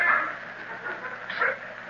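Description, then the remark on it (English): A human voice mimics a hyena's cry as a raiders' signal to attack in the desert: a thin, wavering yelp-like wail that swells twice, at the start and near the end, sounding muffled with no talking. “Sounds like a hyena to me.”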